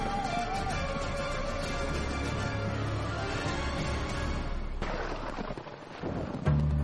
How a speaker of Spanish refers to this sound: Bernie Hofmeyer, mediano, granjero de Girundum, levantó su peluda cabeza y escuchó el lejado sonido del trueno. Una cosa peligrosa, dijo. Esa tormenta sin lluvia.